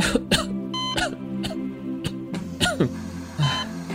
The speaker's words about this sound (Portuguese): Ele então leva a mão que não segura nada ao rosto, e abaixa a máscara. Um gás quase incolor escapa quando ele faz isso. E ele tosse.